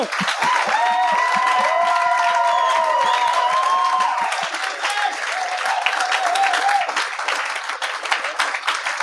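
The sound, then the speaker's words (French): A room full of people claps steadily and loudly for several seconds to welcome guests Guillaume Pinault and Yannick de Martino, with a few cheers and whoops rising over the dense applause early on before it continues on its own. “J'aimerais, euh, j'aimerais qu'on donne bonne main d'applaudissement à mes deux invités.”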